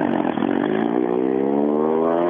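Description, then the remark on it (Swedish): A race car, one of a stream of cars coming one after another during a race, roars past, its loud, buzzing engine note holding steady before the pitch slides gradually lower as it goes by. No one speaks. “Det kommer bil efter bil efter bil här.”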